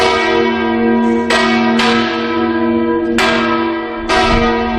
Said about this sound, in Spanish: Y ya que hoy estamos rindiendo homenaje al oficio de campanero, así suena un bandeo de campanas en Navarra.